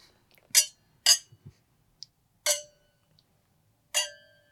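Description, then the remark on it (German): Four bright glass clinks ring out in a toast in an irregular sequence, each with a short shimmering decay, clear with a few soft knocks between them and no talking. “Ich stoße ja. einfach mal mit an. Zum Wohl.”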